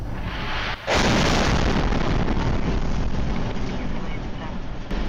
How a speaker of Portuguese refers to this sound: O motorista desse carro flagrou a explosão.